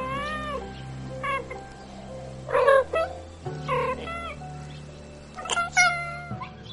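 A cat meows several times in a row, with drawn-out, wavering cries and short pauses between them, clear over a low, steady background hum.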